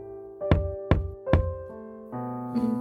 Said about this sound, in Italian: Hai sentito? Hai sentito bussare? Sì. Ecco, bussano ancora.